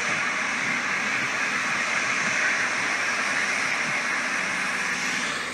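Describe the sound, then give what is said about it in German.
A DT3N subway (U-Bahn) train pulling out of a station, heard as a steady, loud rumble with a broad airy hiss that stays constant throughout, with no voices. “Man hört da ganz viele Geräusche einer S-Bahn, die rausfährt.”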